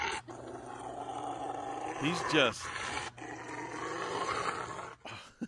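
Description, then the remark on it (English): A large Rottweiler growls low and continuously, rising into a louder snarling roar partway through, while its owner gives it a bath, with a person briefly talking over it. “That is one ticked off Rottweiler. It looks like he's gonna bite his arm.”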